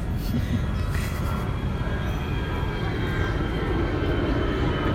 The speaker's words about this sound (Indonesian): ada pesawat tadi ada bola sekarang ada pesawat Berarti dari Halim ya itu jaraknya dekat